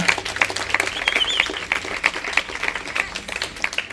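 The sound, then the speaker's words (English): A crowd at a live show at the Mozarts venue applauds the show's hosts steadily. Many overlapping claps form a dense, crackling wash with scattered sharper claps standing out, sustained at a fairly loud level throughout without any speech. “Can I get a huge round of applause for everybody hosting this show right now?”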